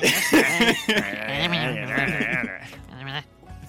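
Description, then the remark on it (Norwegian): A voice imitates croaking with a drawn-out, warbling, nasal vocalization that wobbles for about three seconds, fairly loud, ending with a brief second burst. “du, hører, liksom den Kvekke, kvekkingen. Kvek, kvekkingen til Østfold.”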